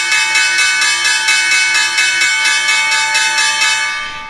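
A stock exchange bell rings loudly and steadily with a fast, rattling clang for about four seconds, then starts to fade at the end. No one speaks over it.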